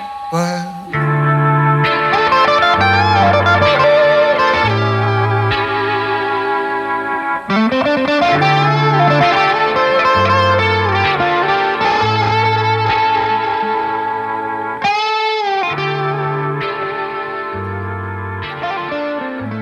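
A rap song plays loudly and continuously, heavily processed vocal lines with echo and distortion riding over repeated booming bass notes and dense layered synth chords.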